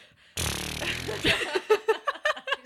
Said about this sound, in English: Uh, excuse me, can we just stop for a second? Because I'm gonna shit my pants. I uh, trusted a fart.